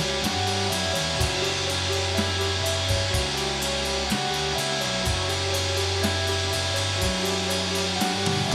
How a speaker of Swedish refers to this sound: föredömligt pruttsynt ljud.